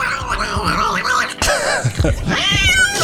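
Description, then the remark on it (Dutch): A cat meows loudly, letting out several drawn-out, wavering cries that rise and fall in pitch, one after another with no talking. “kat? Ja, kat.”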